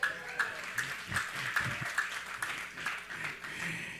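An audience applauds, a dense, steady patter of many hands clapping that holds at a moderate level for about four seconds, with a few louder bursts and faint voices mixed in.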